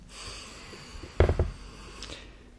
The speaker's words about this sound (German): Ja, im Hintergrund. Man hört immer noch den Kühlschrank vor der Küche.